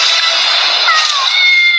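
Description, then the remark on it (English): A big cat in Night at the Museum: Secret of the Tomb growls loudly and continuously for about two seconds. It is a harsh, raspy snarl that holds steady from start to finish, unaccompanied. “Never run from a big cat”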